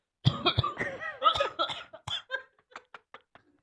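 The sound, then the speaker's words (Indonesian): A dog coughs in a rapid hacking fit, several rough, strained bursts that trail off into quieter, shorter huffs over a few seconds, with no talking. “era anjing batuk mas era anjing”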